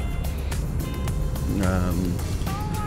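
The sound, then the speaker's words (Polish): Steady, loud road and engine roar from inside a moving car as it overtakes a large mobile crane on the road, with a rising tonal whine midway and faint vocal sounds over the noise. “A ja cóż, wracam na drogę, wracam do gadania i wracam do wyprzedzenia wielkiego dźwigu.”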